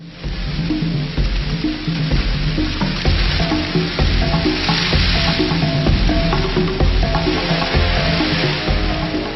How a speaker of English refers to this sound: Triggered by the rains, an all-devouring army. Locusts. millions emerge from eggs buried in the sand, gathering into columns which may stretch for 10 kilometres.